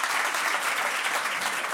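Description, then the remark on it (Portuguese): A Portuguese audience applauding in a vote by applause, a dense, steady wash of many hands clapping at once, holding an even loudness for nearly two seconds with no voices rising above it. “Está aqui é uma pessoa que bate palmas a tudo eu gosto, mas pode ser melhor.”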